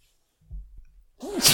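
A single loud sneeze: a low, breathy build-up followed by a sharp, explosive burst of hissing noise at the end. No one speaks.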